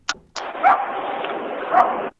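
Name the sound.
small dog barking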